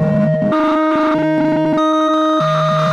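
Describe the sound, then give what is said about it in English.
A three-module Eurorack modular synth patch plays a loud, busy sequence: a steady high drone over a stepping bass line that jumps between low notes, with bright buzzy harmonics and no voices. The modules are an Ornament and Crime in Hemispheres mode, a Qubit Data Bender, and a Make Noise Mimeophone as the sound source. “What you're hearing currently is indeed three modules.”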